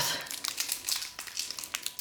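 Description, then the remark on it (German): Crisp crinkling of a sour candy's wrapper being opened, a dense run of sharp plastic crackles lasting about two seconds with no one talking. “Ach, das ist ein Bonbon.”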